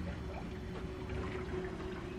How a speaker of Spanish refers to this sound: Al sonido del mar bajo cubierta el susurro de las profundidades que el casco del Demeter saborea apenas.